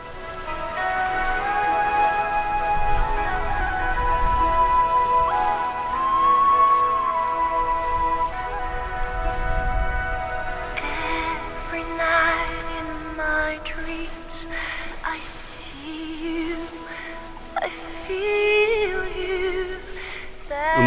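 nature, wind and waves

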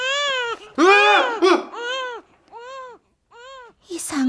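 sound effect, newborn baby crying

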